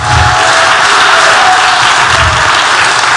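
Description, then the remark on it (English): An audience claps hands in sustained, dense applause, loud and steady throughout with no individual claps standing out, and no one speaking over it. “Clap your hands, all you people, if you receive it.”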